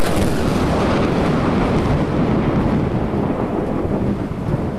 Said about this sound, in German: Der Regen, der jetzt hier in den nächsten Stunden heruntergeht, verbindet sich in der Luft mit den Abgasen. Ergebnis saurer Regen.